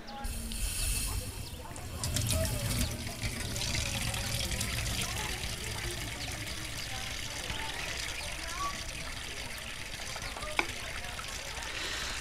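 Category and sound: household object, water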